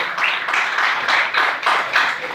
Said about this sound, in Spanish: Denle al Señor ese aplauso, por favor.